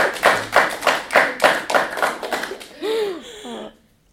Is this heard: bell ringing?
no